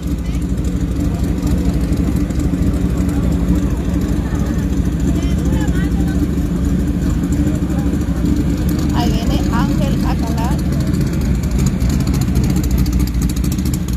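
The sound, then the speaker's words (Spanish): A tractor engine runs steadily, its deep, even rumble holding constant throughout with no revving, while faint, muffled voices drift in underneath. “Después del tractor iniciamos con el INDEX 450.”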